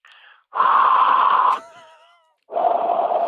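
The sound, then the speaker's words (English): Heavy, labored breathing: a long rasping exhale ending in a brief groaning voice, a pause, then another loud breath. It sounds like a person imitating the breathing. “That's me breathing the last two interviews.”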